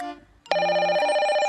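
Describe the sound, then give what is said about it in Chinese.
A phone ringback tone on speakerphone, as a student calls her mother at the teacher's order, starts abruptly after a brief quiet moment: a steady, loud electronic ring with stacked harmonic tones, sustained without pause and with no one talking over it. “给，现在就打电话给你妈，开免提。”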